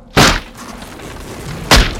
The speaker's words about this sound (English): Max knelt upon the ground, then balled up his hands and began to hammer them into the floor.